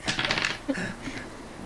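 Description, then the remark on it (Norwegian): A single die clatters and tumbles across a hard surface in a quick burst of small rattling knocks, then settles showing a four. It is fairly loud, with no talking. “Um, jeg tror jeg bare ruller den der ene terningen her, ja, som har, handler om alt som er galt i hele verden.”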